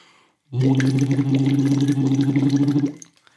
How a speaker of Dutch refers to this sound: Die van Tim die maakt iets grotere en langzamere bubbels per seconde.